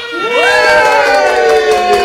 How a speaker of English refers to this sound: OK，咁我哋咧都準備咧去睇呢個德國隊嘅呃比賽啦。好，Let's all cheer for Germany tonight! Yeah!